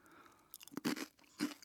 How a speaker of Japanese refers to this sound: うん悪くないの手で掴んだ感じはなんかでも歯ごたえがさ脆い気がするな4番これ皆さんどんなつもりで聞いてます今 ただひたすらポリポリポリポリ